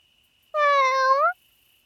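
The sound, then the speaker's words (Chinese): A single cat meow, about three-quarters of a second long, with a clear harmonic tone that rises slightly at the end. It is fairly loud and stands alone, with no talking. “嗯，你不是那天在水果店的那只猫咪吗？怎么跑来这了？”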